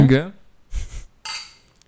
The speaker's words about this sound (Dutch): Dit was wel een klinken en drinken. Dit was geen tikken en slikken.